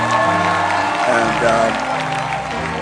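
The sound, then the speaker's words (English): A crowd claps and cheers to honor a pastor, a steady, dense wash of applause, with scattered shouts and whoops rising over the sustained noise for a few seconds. “Clap your hands for him.”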